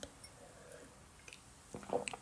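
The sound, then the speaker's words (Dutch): A quiet sip of tea from a cup: a short wet slurp near the end, then faint mouth sounds and a soft swallow, with no talking. “een slokje thee tussen al dat uh, eh, geouwehoer door.”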